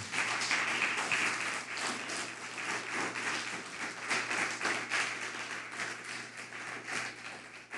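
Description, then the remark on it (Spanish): A crowd applauds the Eternal (God) steadily, many hands clapping in a dense, continuous patter that holds an even loudness throughout, with no voices standing out. “Dale un fuerte aplauso al Eterno por eso.”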